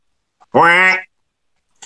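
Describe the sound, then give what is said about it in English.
A person's voice imitates a single loud, nasal duck quack lasting about half a second, followed by silence and a faint brief noise at the end. “I'm going to use all my creativity as it uh, pertains to Howard the Duck right now.”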